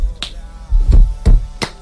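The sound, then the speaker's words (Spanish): A stomp-stomp-clap rhythm: two heavy, low thuds followed by a sharp, bright clap, with another clap just before. The pattern is loud and short, and nobody speaks over it. “Entonces, la gente aplaudiendo tan y con los pies.”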